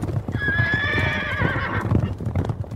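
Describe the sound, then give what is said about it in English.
Horse hooves clip-clop in a steady, rhythmic beat while a horse lets out a long, loud neigh over the top, the whinny fading as the hoofbeats continue. “Or do we have, we haven't done our horse thing yet.”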